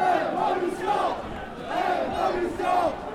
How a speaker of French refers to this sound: Euh, il y a toute une foule de manifestants qui vient de forcer le blocage euh, des CRS.